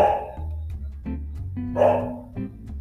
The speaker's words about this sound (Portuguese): O cachorro que vocês estão ouvindo é o cachorro do meu irmão, porque eu me mudei e ele meio que tem um canil, então acostume-se com isso.